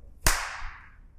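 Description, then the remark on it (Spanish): One loud, sharp hand clap cracks out on its own, its bright snap trailing off in a brief fading ring, with no voices present. “¿Ya aplaudo?”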